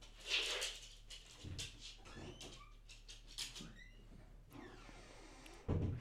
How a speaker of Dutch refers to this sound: Doe, doe maar even die deur open, dan gaat ze denk ik oh naar boven. Ik ga, ik ga hem open.